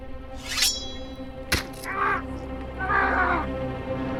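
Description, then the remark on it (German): A crow-like bird caws several times in harsh, raspy bursts, with a sharp click or snap between calls and a low steady hum underneath. “Da, hinter dir, ist ja der Vogel wieder.”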